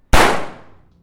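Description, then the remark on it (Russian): A single loud gunshot cracks out sharply at the execution of Tsar Nicholas II and his family on the night of 17 July 1918, then its echo rolls away and fades over about a second. No voices accompany it. “Прогремел выстрел.”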